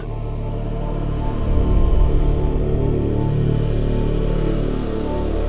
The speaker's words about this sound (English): Then I added into the second part another synth, sounds like this.